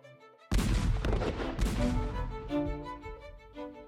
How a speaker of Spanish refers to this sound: En la celda que sería su última morada, Miguel Hidalgo y Costilla, a los 58 años de edad, pudo escuchar el fusilamiento de sus compañeros de lucha, Ignacio Allende y Juan Aldama.